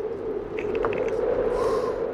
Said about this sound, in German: Kommt ihr drauf, was das ist? Das ist Wind. Wind, genau.